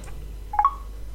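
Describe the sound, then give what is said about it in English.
A short pair of electronic tones, quick beeps one right after the other, clear against a quiet background hum, as a home phone call is hung up by pressing L1 and R1. “And I'll hang up the phone call.”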